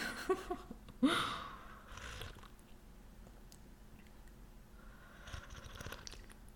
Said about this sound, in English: Hmm do you like to like sip your hot tea like that when it makes a little bit of noise? I kind of like it.